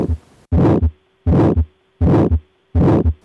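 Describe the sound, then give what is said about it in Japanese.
A diamond-shaped systolic ejection heart murmur: four loud, evenly spaced cycles of a harsh, whooshing murmur that grows strongest in mid-systole, between low heartbeat thumps, with no talking. “このような雑音を収縮期屈質性雑音と言います”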